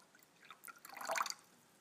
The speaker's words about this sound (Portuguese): Hoje são notáveis os pingos que chegam na caixa d'água.